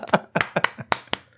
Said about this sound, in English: That's the sound of me patting my own back.